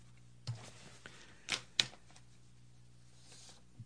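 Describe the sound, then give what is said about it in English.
Papers being shuffled: three or four short, crisp rustling bursts spaced irregularly against a quiet background hum, with no one speaking. “shuffling my papers there, doing my Dave Despain shuffle the papers 18 times.”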